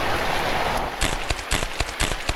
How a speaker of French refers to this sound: Mais putain et eh oui, une bourrasque tout droit venue d'Alaska est venue détruire votre parapluie.